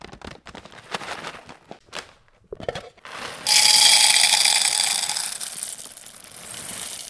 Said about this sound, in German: Wir haben jetzt die Bohnen eingefüllt.